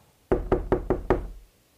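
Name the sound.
knocking on a door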